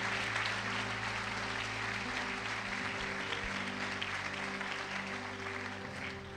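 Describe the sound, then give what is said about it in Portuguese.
A crowd at a pastor's sermon claps steadily and continuously for several seconds, applauding Jesus: a dense, even wash of applause that stays loud throughout, with low sustained musical tones humming underneath. “Ajuda o pastor, aplaude Jesus aí.”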